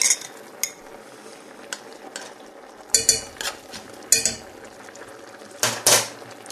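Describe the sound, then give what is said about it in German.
A spoon stirs and scrapes inside a pot as starch mixed with cold water is stirred into cucumbers to thicken them, with intermittent bright clinks and scraping strokes over a soft simmering hiss, fairly loud, with no talking. “binde dann die Gurken Unterrühren schütte ich das rein.”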